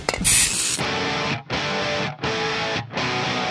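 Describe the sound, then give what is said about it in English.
A single loud burst of hairspray hisses from an aerosol can for under a second, then heavy distorted guitar music takes over in chugging, evenly spaced blasts. “Grab your hairspray and your sister's makeup and try to fit in those spandex again.”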